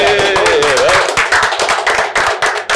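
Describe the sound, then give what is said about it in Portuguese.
A brief round of applause for the guest, with dense, fast clapping from a few people, accompanied by overlapping voices and a high-pitched cheer at the start. “E quem que é o nosso convidado merece? Ah, salve de palmas.”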